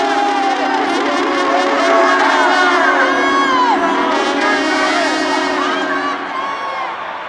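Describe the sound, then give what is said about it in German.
A huge arena crowd of tens of thousands of people at a gladiator fight roars continuously, shouting and whooping over a dense wash of foot-stamping and hand-clapping, loud throughout before easing slightly at the end. “Die Stimmen, das Trampeln der Füße, das Händeklatschen von den Zehntausenden Menschen in der Arena sind ohrenbetäubend und der Lärm scheint immer noch lauter zu werden.”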